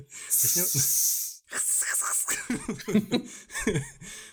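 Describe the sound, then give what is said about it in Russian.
A voice imitates a snake's hiss in two long, loud hissing bursts, mixed with breathy laughter and chuckling from people. “Давайте а перейдем сразу на э, язык змей. Да, да, начнем, начнем шипеть.”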